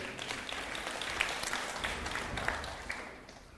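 An audience claps together in steady, dense applause for a few seconds, many hands blending into a continuous patter before it thins and fades at the end. No one speaks over it.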